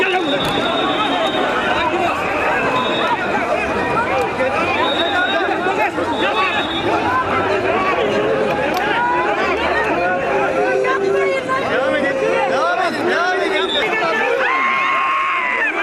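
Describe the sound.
A dense, agitated protest crowd shouts and screams continuously during a police intervention in which 19 people were detained, overlapping voices rising and falling in pitch with sharp high cries cutting through the loud chaotic babble throughout.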